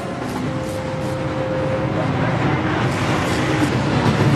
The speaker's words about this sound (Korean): 저 바깥에서 행길에서 나는 오토바이 지나가는 소리 그리고 아저씨의 사각사각 수염 깎는 소리 이런 것들이 뒤섞여서 어, 아련한 예측을 불러일으키는 것 같은데 낯선 도시에 와서 이런 체험해보는 것도 괜찮은 것 같아요.